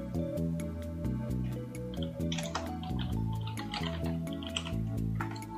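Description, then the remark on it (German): Keyboard typing: a run of quick, crisp key clicks at an uneven pace over a steady low tonal hum. No one speaks. “ja, ich höre es tippen, tippen, tippen.”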